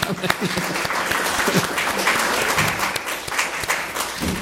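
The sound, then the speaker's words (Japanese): An audience claps for Jesus, a steady, dense wash of many hands filling the whole stretch at a fairly even loudness, with a few sharper individual claps standing out. “アーメン感謝しますイエス様の拍手いただきます”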